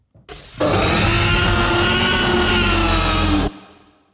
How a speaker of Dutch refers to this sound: Een dinosaurus of zo? Dat klinkt als een dinosaurus. Het is inderdaad een dinosaurus. Jurassic Park? Ja. Nee. Absoluut. Nee. Dus de geluiden van de dino's in Jurassic Park zijn gemaakt door Alain Pierre.